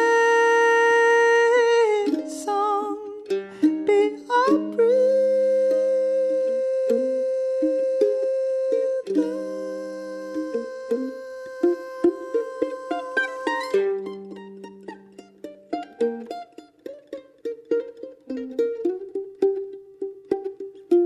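Solo mandolin music with no voices, the opening track of an album: ringing, sustained chords and melody lines at first, then shifting to a quieter passage of crisp, rapidly plucked notes with a steady, choppy rhythm.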